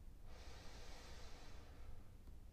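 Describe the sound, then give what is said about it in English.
A single slow, deep inhale drawn in through the nose during mantra breathing practice, a soft airy rush lasting about a second and a half, quiet with no talking. “can imagine, or say out loud that mantra. Breathing in”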